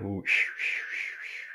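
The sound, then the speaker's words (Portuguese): A pressure cooker cooking beans at home hisses steadily on a wood stove, its whistle valve spinning, a loud, bright jet of steam with gentle wavering surges, following a brief moment of voice at the very start. “Tá só o tá barulhinho da, da, panela de pressão, né?”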